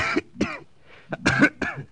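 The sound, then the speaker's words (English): A man with a very bad cold coughs harshly several times in quick succession, a short burst of rough, chesty coughs with a brief pause in the middle. “that's a very bad cold, …”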